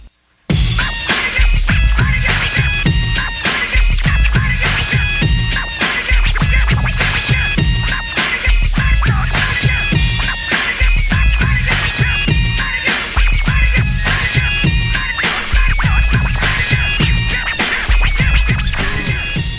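A hip hop track plays on a hip hop radio show on choc.ca, loud and unbroken after a split second of silence, with a steady punchy drum beat, heavy bass and layered sampled melodies. No voices come through.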